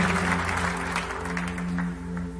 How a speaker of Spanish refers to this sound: Denle un aplauso al Señor con todo su corazón. Gloria a Dios.